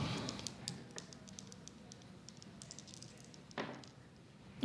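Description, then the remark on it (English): Dice rattle and tumble across a tabletop as they are rolled in a game, a quiet, irregular flurry of small clicks and clacks with a slightly louder clatter near the end, without any talking. “So now we're going to roll.”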